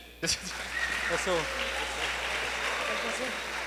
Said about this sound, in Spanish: Ya tenemos un valiente. un aplauso para él.